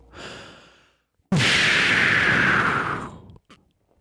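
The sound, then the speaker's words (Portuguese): A voice imitates a smoke bomb: a soft breathy lead-in, then a loud hissing puff of air that sustains for about two seconds before fading out, with a faint click after. “bombinha de fumo.”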